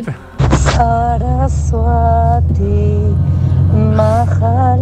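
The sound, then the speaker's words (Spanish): A recorded sung healing mantra, just sent over WhatsApp, plays from a phone: a single voice holds long, gliding melodic notes over a steady low hum, fairly loud, with a brief pause between phrases. “Justo acaban de mandar mi mantra sanador, mandan recién en el WhatsApp. que está cantado.”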